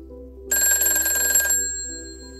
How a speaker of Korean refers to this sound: 갑자기 울리는 공중전화 공중전화벨이 울리는 소리 들어보신 분 있으신가요? 정말 시끄럽게 울려서 더욱 놀랐습니다. 무시하고 가려는데 공중전화 벨소리는 계속 울리더군요.